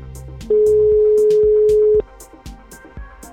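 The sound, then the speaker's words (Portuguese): A telephone ringback tone sounds once during an outgoing call to a grandmother, a loud, steady beep lasting about a second and a half over faint rhythmic background music. “Para já vamos ver se ela atende, mas costuma atender, o telefone toca muito alto.”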